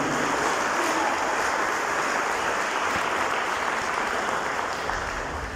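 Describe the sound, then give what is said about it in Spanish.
Sustained applause from a large audience, a loud round of applause given to Christ Jesus: a dense, steady wash of clapping that holds loud for several seconds and eases slightly at the end, with no voices standing out. “Denle un aplauso fuerte a Cristo Jesús, por favor.”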